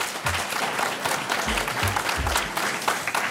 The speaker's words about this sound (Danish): Klap også lige af Bodil og Anders, kære publikum.